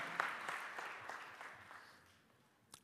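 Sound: audience applause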